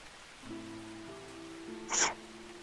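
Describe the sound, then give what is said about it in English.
A single short, sharp sneeze bursts out, a breathy hiss-like blast that stands out clearly over a low, steady background hum. “Bless you.”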